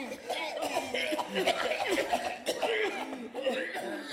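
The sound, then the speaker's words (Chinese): A voice acts out a fire-breathing dragon in a children's story choking and coughing after a baby elephant sprays water into its mouth: a dense run of raspy, sputtering hacks with strained vocal tones that continue without a break for several seconds at a steady, fairly loud level. “喷火龙呛到咳嗽咳不停，搞得房间里全都是黑烟。”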